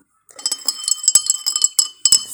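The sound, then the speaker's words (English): A spoon clinks repeatedly against a coffee cup in quick, irregular taps, bright and ringing, as if stirring, with no voices over it. “so yeah that is my coffee i'm storing my coffee”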